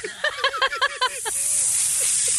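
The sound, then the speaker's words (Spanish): A balloon hisses as air rushes out in a steady, bright, loud stream lasting about a second, after a short burst of voiced talking. “No, es el, es el sonido del globo.”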